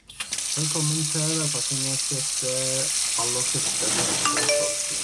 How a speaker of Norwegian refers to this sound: Og så oppvasken.